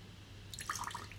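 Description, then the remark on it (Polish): A weak, faltering dripping trickle: after a moment of low hum, a few soft, irregular plinks and splashes of liquid arrive in quick succession, quiet and uneven, with no voices. “I wtedy taki dźwięk może po prostu oznaczać, że ktoś ma olbrzymie problemy”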